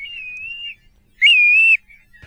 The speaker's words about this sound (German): Ähm, Regenpfeifer ist ja eine ganze Familie. Und dass der Name Pfeifer da nicht von ungefähr kommt, das äh, habe ich auch gestern hören können, denn es schallerte regelrecht über der Stadt.